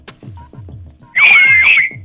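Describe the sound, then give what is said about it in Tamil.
A loud, shrill human whistle bursts in for under a second, warbling slightly in pitch, over a steady thumping bass beat that runs throughout. “whistle போடு”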